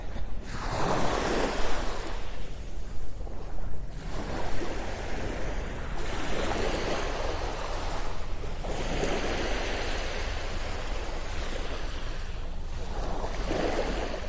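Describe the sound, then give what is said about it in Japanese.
Gentle ocean waves on a calm morning wash onto the shore at Hayama, Japan, under a partly cloudy sky at about 13 degrees, in a steady rhythm, each broad swell of noise rising and fading every few seconds, with a constant low rumble underneath and no voices. “葉山から朝の波音3分 LIVE”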